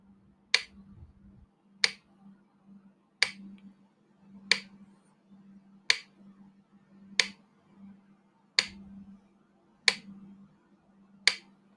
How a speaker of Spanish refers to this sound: Empieza por concentrarte en el sonido del metrónomo, en su ritmo.